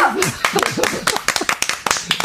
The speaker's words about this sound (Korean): 박수!